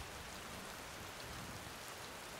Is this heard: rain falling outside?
yes